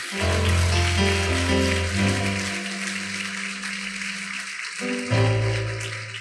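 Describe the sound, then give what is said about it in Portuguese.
An audience applauds God steadily for several seconds, a dense, continuous wash of clapping layered over sustained organ or keyboard chords, with no talking. “Você pode aplaudir mais uma vez aquele que é digno?”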